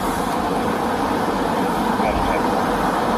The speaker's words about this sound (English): Then we have the car ride to the police station.